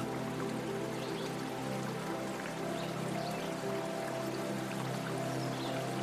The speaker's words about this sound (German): Das wilde Rauschen des Milchflusses ist schon von weitem zu hören. Die reinste und feinste Milch fließt in einem breiten Strom durch das gesamte Schlaraffental.